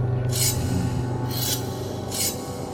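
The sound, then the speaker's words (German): Metallic clattering like cutlery, heard as three rasping, scraping bursts spaced about a second apart over a steady low hum, with no voices. A man is handling something in the back of a vault. “Es klappert metallisch.”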